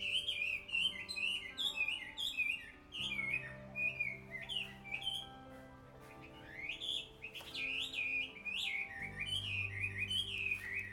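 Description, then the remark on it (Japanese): Birds chirp and call continuously outdoors near where the speaker lives, bright repeated tweets and whistled notes overlapping in a steady, busy chorus from unfamiliar-sounding birds that cannot be seen, with a low background rumble and no one talking. “鳥さんがすごい泣いてるので録音できるかなこんな泣き方する鳥さん知らないですよ私。”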